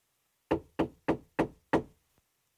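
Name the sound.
knocking on a door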